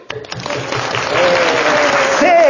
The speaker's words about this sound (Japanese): あ、おー、結構来てるね。あれ、もう、ちょっと学生超ラッキーなんで拍手